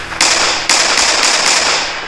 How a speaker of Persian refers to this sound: و افراد از پشت به طرفش شلیک کردند